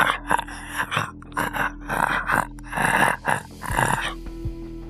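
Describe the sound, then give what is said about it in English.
A voice imitates the creaking, knee-popping noise a creature made as it walked, with a rapid series of rough, strained bursts, about eight in a row, fairly loud, with brief gaps between them and no talking. “He's like, and then we heard this creaking noise. Like when this thing walked, it was like, it sounded like somebody's knees popping.”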